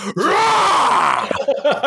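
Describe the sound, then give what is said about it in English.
A person lets out a long, loud, strained vocal groan imitating inspiration crossed with frustration, rising and wavering for over a second, then trailing into a few short breathy grunts. No words are spoken. “which I believe was to represent the sound of inspiration crossed with frustration”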